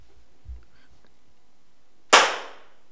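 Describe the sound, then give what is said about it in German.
A single sharp hand clap to sync a recording that has just started, loud and crisp, with a quick decaying ring, follows a stretch of near-silence with only faint low thumps. “Klatschst du oder soll ich?”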